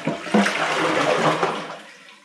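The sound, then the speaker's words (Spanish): A steady rush of running water from a tap as dishes are being washed, a broad hissing splash that holds for about two seconds before easing off slightly, with no voices. “Y yo, que estoy lavando los platos en este momento”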